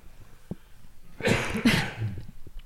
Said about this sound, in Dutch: Maar, sorry, ik doe even een kuchje. Be right back.